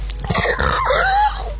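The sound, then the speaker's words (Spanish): A voice mimics a bow being drawn taut: a strained creak from the throat that stretches into a thin, wavering whine, lasting about a second and a half. “El sonido, eso es el sonido de tensar arco, vale.”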